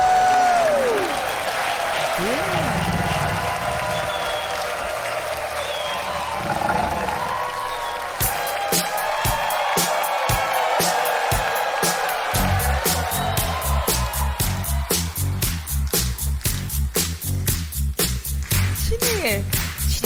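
A crowd cheers and whoops with a few whistles as a performer is introduced on stage, then breaks into loud, sustained applause with dense clapping. A steady low thumping beat runs under the clapping in the second half.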